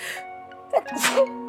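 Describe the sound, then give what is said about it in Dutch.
A single sneeze, fairly loud: a short catching breath followed by a sharp, breathy burst, with a low steady hum in the background. “gezondheid. Bless you.”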